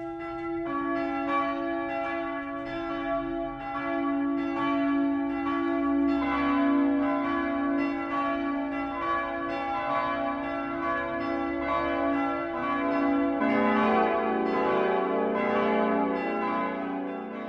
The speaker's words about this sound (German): Es ist 12 Uhr. Das Mittagsläuten kommt heute aus der Bayreuther Stadtkirche Heilig Dreifaltigkeit.